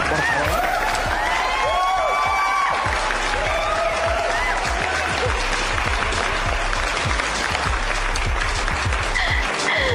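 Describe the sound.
A crowd applauds loudly and steadily throughout, a dense wash of many hands clapping, with voices and a few whoops rising over the noise now and then.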